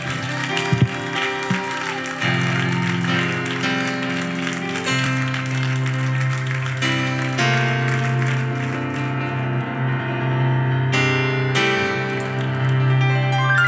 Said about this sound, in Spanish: Yo quiero que con fuerte aplauso de gratitud al Señor recibamos al evangelista